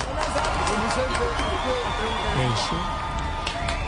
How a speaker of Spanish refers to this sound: Gracias, esos aplausos no me los merezco, pero ahora aplaudan por favor a los nominados.